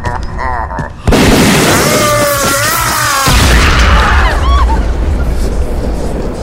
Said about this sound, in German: Er. Er ist explodiert!